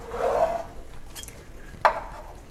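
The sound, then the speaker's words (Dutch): Glasses being handled in a cupboard while a glass is taken out to pour cola: a soft scraping slide followed by a sharp, bright clink of glass, with faint rustling in between and no talking. “Maar ik heb geen oh, glas. Okay. Whatever, ik doe het dan nu.”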